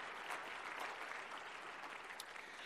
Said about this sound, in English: Come on, give a clap offering to the Lord God.